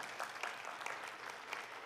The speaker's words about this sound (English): Praise, by the way, to, or applause, by the way, to our tech team and our office crew. Um, thank you, Yeah.